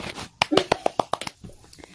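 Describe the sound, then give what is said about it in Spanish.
A brief round of hand clapping: quick, sharp claps in a steady rhythm that peak early and then thin into softer, scattered claps before stopping. “Nice, nice, un aplauso.”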